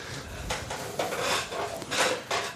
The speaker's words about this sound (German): So ein bisschen Stühle knarren. Ne?